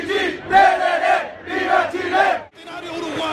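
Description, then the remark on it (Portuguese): A large crowd celebrating Chile's World Cup qualification chants and cheers in loud, rhythmic bursts, many voices rising together in a repeated phrase, with the roar continuing after a brief dip. “Acaba o jogo, o Chile está na Copa, vamos ouvir a farra da comemoração pela vaga conquistada.”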